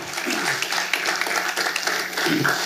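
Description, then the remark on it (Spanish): An audience at a church service breaks into steady applause for the Lord at the preacher's request, a dense wash of many hands clapping at once, fairly loud and continuous with a few voices murmuring underneath. “Bueno, dele ese, ese aplauso al Señor.”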